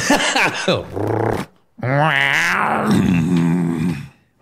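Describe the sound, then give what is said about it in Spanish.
A voice close to the mic imitates a cat's purring, making loud, rumbling, growly vocal sounds in two bursts separated by a brief pause, with the pitch rising and falling. “Mm, ronroneando como.”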